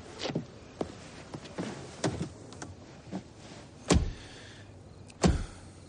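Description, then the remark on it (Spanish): Two agents climb into a car: shuffling, rustling and small knocks lead up to two loud, heavy door slams a little over a second apart. No one speaks. “Los dos agentes se montan en el coche.”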